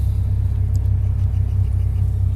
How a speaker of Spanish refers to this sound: Pero solo permítanme un momento porque la salida del centro comercial está algo complicada el día de hoy. A esta hora ya el tráfico está un poco más pesado.